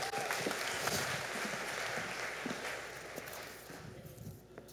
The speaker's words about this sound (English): Y'all give our volunteers a big round of applause.